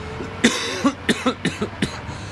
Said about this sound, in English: and I've been coughing for 20 years.